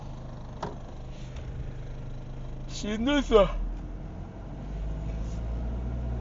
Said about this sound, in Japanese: ほんまでね今あのーなんだ車で帰ってるんですけどもうガソリンももうペッタペタねえ